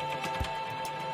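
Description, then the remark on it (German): A quiet electric car, just switched on with people sitting inside, gives off a thin, steady electric whine over a soft hiss, with one low thump partway through and no talking. “Absolut unmännliches, elektrisch fahrendes Auto.”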